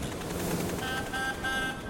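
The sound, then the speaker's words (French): An old horn of a green bus honks in a few short, steady bursts over a busy rumbling background, fairly loud, with no one speaking. “Il y eut un gros bruit derrière eux, comme le son d'un vieux klaxon.”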